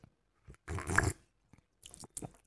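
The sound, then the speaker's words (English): A loud slurping sip of hot coffee, followed by a few quieter mouth and swallowing noises, with no talking. “if you're drinking your coffee this morning”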